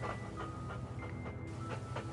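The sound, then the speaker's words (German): A black dog walking through a wooded area pants in quick, steady, rhythmic breaths, each huff rising and falling over a low continuous rumble in the background. “Der Mann wagte kaum, sich nach ihm umzusehen, aber er hörte das Hecheln und Atmen des Tieres und spürte eine kalte, beinahe erdrückende Präsenz an seiner Seite.”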